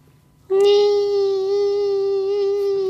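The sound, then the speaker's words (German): A voice imitates a mosquito's whine: a single sustained, steady nasal buzz that starts abruptly after a brief quiet moment and holds at an even, fairly loud level until the end. “Die ganz klassische Mücke. Ähm, vor allem so in den Sommermonaten, du liegst in deinem Zelt und dann hörst du.”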